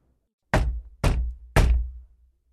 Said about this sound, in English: The two men reached the house. Poole knocked on the door.